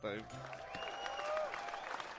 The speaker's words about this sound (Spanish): Un remate perfecto. El eh, aplauso, aplauso.